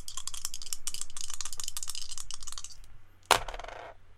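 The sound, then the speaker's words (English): Two dice are rolled across a table: a rapid clatter of the dice tumbling for a few seconds, fading out, then one sharp tap and a brief rattle as they settle. No voices. “So go ahead and make that roll. Okay, and this is one dice, correct? No, it is two dice”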